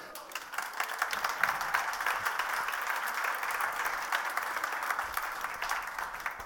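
A church audience applauds steadily for a speaker newly accepted as a minister, a dense patter of many hands clapping at once, holding a fairly even, moderate loudness throughout with no voices rising above it.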